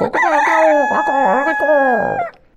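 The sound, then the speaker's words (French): A rooster crows once, a loud, drawn-out call with a wavering, strained pitch that holds for about two seconds before cutting off into quiet. “alors que le coq de son côté avait atterri sur la tête en tirant les cheveux et en hurlant”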